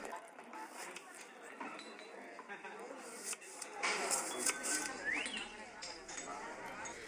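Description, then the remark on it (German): Busy bar ambience mixed on a bar-sound generator, with a bartender working and people talking: a steady murmur of overlapping chatter with scattered light clinks and clatters of glasses throughout, and a brief rising whistle-like tone near the end, moderately loud and continuous. “Also das heisst, man kann einstellen, es gibt so verschiedene Funktionen, Bartender Working, People Talking, Rain on Window, Night Ambience und je nachdem, was man gerne hat, oder Street Ambience, also wie viel Strassenlärm man will”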